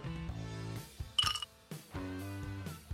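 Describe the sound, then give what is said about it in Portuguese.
Ice clinks against a drinking glass in one brief, bright, ringing burst midway through, heard over a steady low hum with no talking. “Não sei se deu pra ouvir, mas é o meu copo com gelo.”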